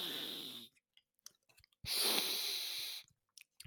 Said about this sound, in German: einfach einen Nasenloch zuheben und durch den anderen atmen. Wenn man Nach, ist, dann klingt es so.